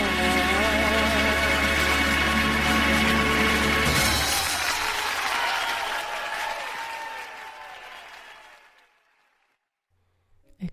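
A live band's final sustained chord rings out under a dense wash of audience applause, which continues steadily after the music stops and then gradually fades away to silence.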